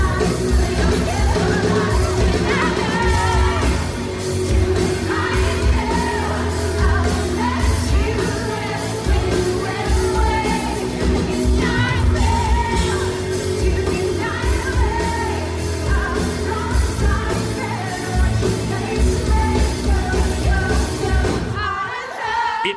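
A live rock cover of a 1995 hit performed at full volume at the Greek Theater in Los Angeles, with pounding drums, dense distorted guitars and yelled, strained vocals over crowd noise, continuing steadily before cutting off abruptly at the end.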